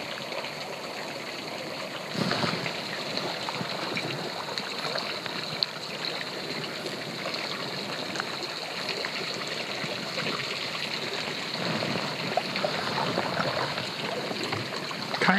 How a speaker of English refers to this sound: they're just dripping with water from the hot springs. We can't see them because we're on the water, but you can see the steam rising up from them. And you just listen to the water coursing off the shelf of rock and into the lake.